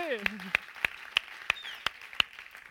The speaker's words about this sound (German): Hey, und das verdient einen mega Applaus, Mann, come on. Bravo, come on, das SPD!